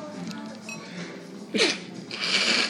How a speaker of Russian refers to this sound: Будь здоров. Вот это доказывает, что у нас, как в шоу Трумана, все по-настоящему. Настоящие... Э, чих. чих, настоящие сопли летят.